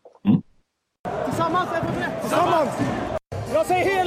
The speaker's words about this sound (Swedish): Då skulle han skrika en sak och så skulle laget skrika ett annat. Kan vi, faktiskt, vi kan lyssna lite på, på några av de här Tamaterna.